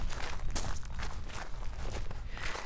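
footsteps walking outdoors

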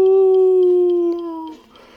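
canine howling

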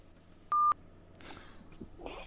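telephone keypad dialing tones

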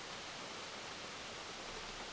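waterfall rushing water

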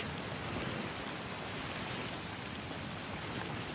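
rain falling at night

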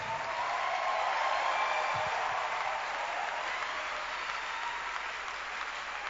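audience clapping

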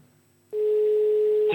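telephone ringing tone

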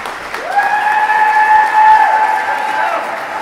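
audience clapping

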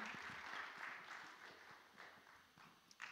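audience applauding

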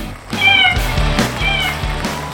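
cat meowing

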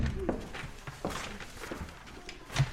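door closing sound effect

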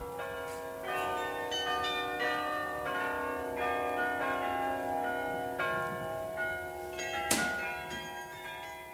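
carillon bells playing

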